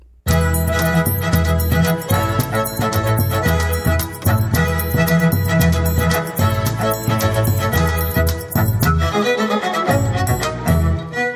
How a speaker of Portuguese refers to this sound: o baiano se reuniu ao quinteto de cordas para o espetáculo e o CD …, de 2001